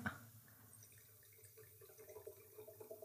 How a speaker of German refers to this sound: Da haben wir jetzt einen roten dabei, den Tore Albenis. Ich tue den sonst gerne mal einschenken.